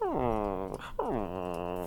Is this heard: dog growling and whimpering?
yes